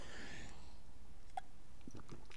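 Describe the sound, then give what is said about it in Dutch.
Someone takes a quick sip of water, with soft slurping, a swallow and a few small wet mouth clicks over quiet background hiss. No one speaks. “Even een slokje water, sorry.”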